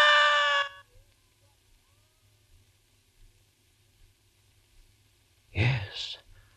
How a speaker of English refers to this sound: I screamed. I screamed so loudly there was blood in my throat, for it was she again, that woman, that woman out of my dream.